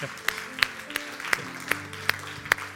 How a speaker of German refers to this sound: Ich habe geklatscht, das hat eine medizinische Sache. Aus dem Sozo kennen wir das auch wenn man Klatsch gibt es einen Impuls im Hirn, der wie ein Reset macht.